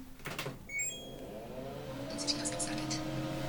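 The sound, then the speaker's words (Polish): A tumble dryer is switched on: a sharp button click, a few short high electronic beeps, then a low motor hum that rises steadily in pitch as the drum starts turning. “Z pralki normalnie, A znaczy z suszarki. Fizycznym przyciskiem tak. włączam”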